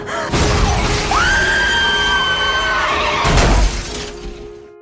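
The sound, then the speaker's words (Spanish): A car crashes while being driven through a heavy rainstorm, with shattering glass: a loud smashing impact, then a sustained high-pitched screech for about two seconds, and a second crunching burst of breaking glass that fades out. “El impacto me puso en trance y vi una película de toda mi vida en menos de un segundo.”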